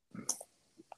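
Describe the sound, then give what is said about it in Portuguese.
A four-color school ballpoint pen clicks a few times at an uneven pace, with short, sharp plastic snaps and a brief rattle at the start. No one speaks. “Não, cara, eu tô com aquelas canetas de, de escola, sabe?”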